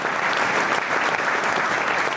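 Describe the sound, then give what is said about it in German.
Steady, dense applause from a crowd of SVP party delegates after the unanimous nomination of Roman Hug as candidate for the Graubünden cantonal government, many hands clapping continuously at an even loudness with no voices standing out. “Und nach dem Applaus habe ich Roman Hug zum Interview abgefangen.”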